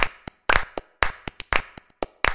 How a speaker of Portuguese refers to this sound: Tudo isso influenciou as pessoas a explorarem também os sons que seus próprios corpos produziam, como o barulho das palmas,